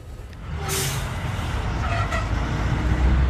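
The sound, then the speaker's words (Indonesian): Heavy aid trucks carrying humanitarian aid from Rafah to Deir al-Balah in Gaza rumble past with a steady low engine drone, and a sharp hiss of an air brake bursts out near the start, with fainter hisses later amid ongoing road noise. “Truk-truk membawa bantuan dari Rafah ke Deir al-Balah, di mana bekal bantuan tersebut akan didistribusikan ke berbagai tempat di Palestina.”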